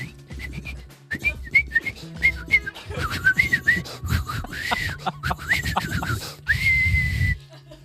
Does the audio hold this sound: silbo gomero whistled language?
yes